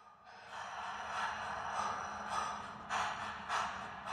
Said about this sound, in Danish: Den tunge vejrtrækning, du kan høre i baggrunden, er fra modellernes åndedrag i det værk